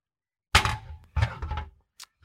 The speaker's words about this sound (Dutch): Pak die grote houten dobbelsteen. En daar gaat hij.